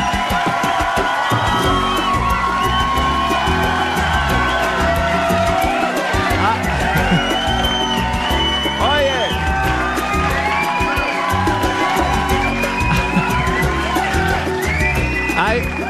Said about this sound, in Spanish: ¿Quién es ese chico que, quién es ese chico que siempre grita igual? ¿Cuál es? ¿Cuál es? A ver. Oh, eh, eres tú. Pelirrojo, además.